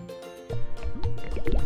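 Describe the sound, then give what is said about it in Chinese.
A frog kicks off and jumps into water to fetch a golden ball: a sudden splash after a brief quiet moment, followed by a run of bubbly, gurgling plops with quick rising watery tones, and no voices. “青蛙一蹬，便跳入水中了。”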